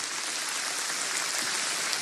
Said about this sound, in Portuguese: Uma salva de palmas, gente, para os nossos visitantes.